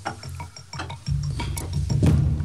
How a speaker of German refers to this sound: Jetzt stellt das verschlossene Glas mit dem feuchten Taschentuch drin an die Heizung.